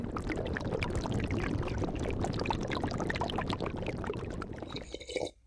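A hot drink, a special concoction called witch's brew, is poured steadily into a cup on Halloween morning, a continuous liquid splash and gurgle lasting several seconds before it stops abruptly.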